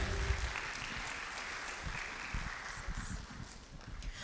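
An audience in a church applauds steadily to welcome a guest speaker, a recent graduate of a master's in leadership at Life Pacific University, a dense wash of many hands clapping at an even level throughout, with no voices standing out.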